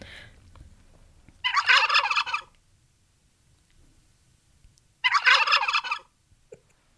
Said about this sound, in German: Ein Vögelchen. Ja, im weitesten Sinne. Ach so, okay. Ein Turkey, ein oh, Truthahn. Ein Truthahn, okay.